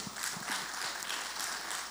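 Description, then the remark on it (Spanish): A church audience applauds, a dense, steady wash of many hands clapping at an even loudness throughout, with no voices standing out above it. “Y quiero que ustedes se den un aplauso, dese un aplauso.”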